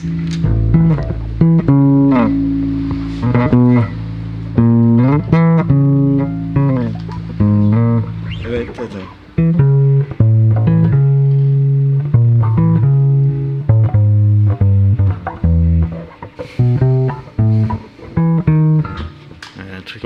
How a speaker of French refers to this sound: j'ai trouvé qu'il sonnait bien, cet, escalator de Châtelet